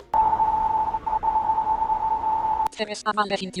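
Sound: audio game cue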